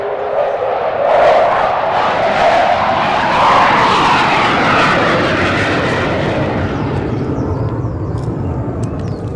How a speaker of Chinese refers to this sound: 我们在录音的时候，还不时的可以听到空中这个战斗机呼啸而过的声音。